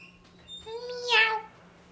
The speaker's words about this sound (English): that meowing? No. it's a remote control Superman. Really? Yeah. Can I see? Oh, wow, it is. it sounds like meowing.